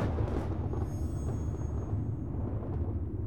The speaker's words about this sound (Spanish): avisando con cada trueno una mágica tormenta de verano.